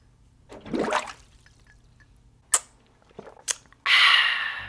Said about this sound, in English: Are you guys hydrated? If not, let's take a sip of water together.